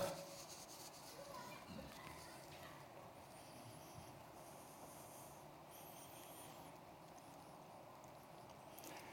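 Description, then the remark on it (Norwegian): Manuscript paper pages rustle and flip in quick, uneven bursts as someone leafs through the manuscript, a soft continuous shuffling with a few brighter crinkles standing out, all fairly quiet. “Det er derfor jeg sitter og blar veldig i manuset mitt her.”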